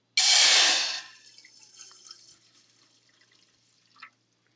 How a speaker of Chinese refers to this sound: 十到十五秒以后，我们要准备加我们的凉开水。好，凉开水，把你的四百 CC 一口气全部加入。